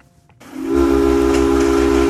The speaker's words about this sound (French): Et vous entendez un train passer, car François, vous nous parlez ce matin, mais oui, on ne, on ne recule devant rien, sur du classique, du fret ferroviaire, un mode de transport des marchandises qui a tout pour plaire